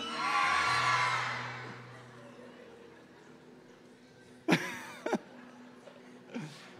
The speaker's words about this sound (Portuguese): Será que você pode gritar de medo aqui hoje? Eu vou dizer: É um fantasma, você grita de medo, combinado?